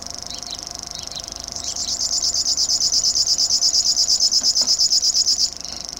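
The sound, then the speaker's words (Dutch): A river warbler's insect-like reeling song: a rapid, metallic, pulsing buzz that swells up and holds steady for several seconds before cutting off, with a few faint chirps before it begins. “Dus dit is de springhaanzanger en dit is de krekelzanger, is dus dit.”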